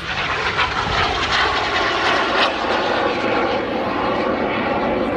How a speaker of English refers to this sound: more airplane noise. Really unique airplane. Um, it, the restoration on it is absolutely beautiful. It's just, it's uh, really, really well done.